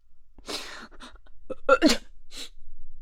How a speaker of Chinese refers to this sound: 小奔打了一个喷嚏之后醒了，他把车窗摇下来，朝外边看了看。